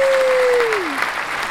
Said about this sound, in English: And we just want to celebrate because we have 509 listeners now. We have impacted Whoa. 509 listeners. Yes. Big applause for that. Woo-hoo.